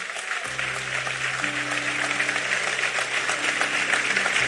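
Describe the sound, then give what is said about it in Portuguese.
An audience breaks into sustained applause for God, in the name of Jesus, dense crackling clapping that holds steady and fairly loud throughout, with a low sustained hum of instruments or organ underneath. “Então aplauda ele por isso aí, em nome de Jesus.”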